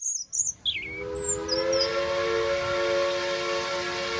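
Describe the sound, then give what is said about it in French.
A comic sound effect for an imaginary 'steam parakeet': a few quick, high bird chirps give way to a loud, sustained steam-whistle tone that holds steady until the end, with no talking. “Le candidat numéro 1 était la perruche à vapeur.”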